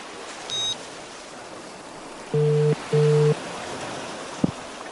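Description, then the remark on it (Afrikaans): A phone's ringback tone purrs twice in quick succession as someone places a quick call. It plays over a steady hiss of rushing water or rain, with a brief beep and a small knock. “Goed, ek bel hom gou.”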